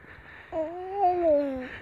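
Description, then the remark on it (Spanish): A small child carried in a baby carrier backpack on a mountain walk in Navarra, Spain, in autumn, lets out one drawn-out, sing-song vocal sound that rises and dips in pitch for about a second, over faint outdoor background hiss. “Podéis ver, oír a, …, que va encantado aquí caminando.”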